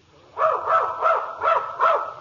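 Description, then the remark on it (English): A dog barks five times in a steady, even rhythm, each bark short and fairly loud, with no other sounds around it. “O bailiff, have the dog brought in.”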